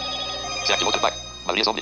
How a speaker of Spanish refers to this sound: Y bueno, vamos a silenciar un poquito las notificaciones que me están llegando.